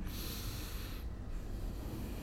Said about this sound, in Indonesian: Jadi dengan memejamkan mata, kemudian tarik nafas perlahan